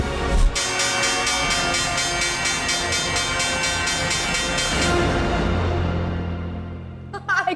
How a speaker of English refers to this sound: can't believe they found the video of the ring of the closing bell.